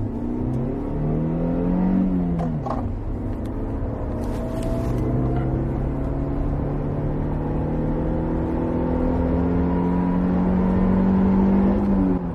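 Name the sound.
car engine revving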